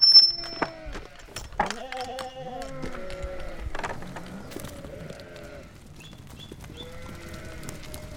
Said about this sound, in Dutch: Ze staan al een tijdje voor het hek te dringen, dus laat de schapen maar los